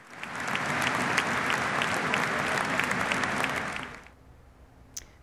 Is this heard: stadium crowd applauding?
yes